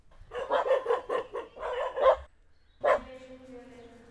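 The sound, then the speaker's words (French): A small dog yaps in a quick, rapid string of high-pitched barks, pauses briefly, then lets out one more sharp bark that trails off into a drawn-out whine. “notre petit chien s'y est plu, il me l'a dit. Les chiens s'appellent B et S.”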